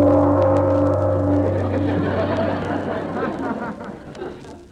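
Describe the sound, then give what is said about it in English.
An odd, deep doorbell, rung by pressing its button at the house of Madame Zombie, rings out in one sustained, resonant tone with strong low overtones, gradually fading and turning into a murky, wavering hum over about five seconds. “Gee, that's a peculiar bell.”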